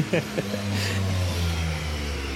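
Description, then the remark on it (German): A small motor engine sound, played from a loudspeaker on an electric bike, drones steadily on a street, its low hum rising slightly as it revs, with a brief voice sound near the start. “das ist ein Mofa, ich hab ein oder? Motorrad.”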